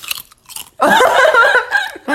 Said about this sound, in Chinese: 所以我们今天找了一个很厉害的帮手，就是乐事，没有接业配，就是所以我们就是你你不知道讲什么时候讲， 哦让，让大家知道我们在忙了，对， 让大家知道其实我们在嚼东西，就不方便讲话。